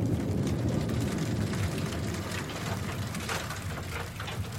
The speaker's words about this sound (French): Alors là, on a le bruit de la grêle qui vient taper contre nos casques, plac, plac, plac, plac, plac. On s'arrête pour mettre nos, nos mais alors ils nous protègent de rien du tout, euh, des grêlons.